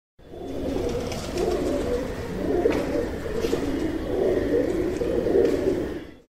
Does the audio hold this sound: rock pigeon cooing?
yes